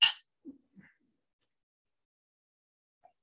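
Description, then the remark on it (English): A single bright clink of glasses rings out at the start as people toast with cheers, followed by a couple of faint, soft sipping or swallowing sounds as they take a drink, and then near silence. “We're just taking a drink there.”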